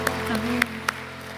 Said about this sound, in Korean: 선한 목자 되시는 주님께 사랑과 감사의 박수 올려드립시다.